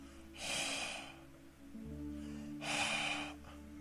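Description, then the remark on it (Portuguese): Two soft, airy exhalations from an open mouth, each a warm "haah" breath lasting under a second, separated by a short pause, over a faint steady low hum, made as a demonstration of breath compared with wind. “Agora olha o bafo.”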